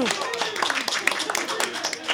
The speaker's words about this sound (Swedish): Det är, ju, det är märkligt att applådera. Eller ja. hur? Att applådera ett sånt svar är ju liksom inte egentligen det vi vill